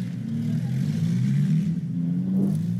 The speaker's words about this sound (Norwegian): Han hives inn i en bil, og så raser de av gårde så røde støvskyer står.